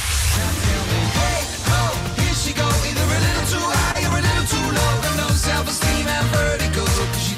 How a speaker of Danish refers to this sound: Øh, sangen, som jeg har med i dag, den lyder sådan her, ikke?